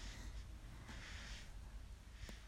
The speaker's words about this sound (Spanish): ese que escuchan roncar en el audio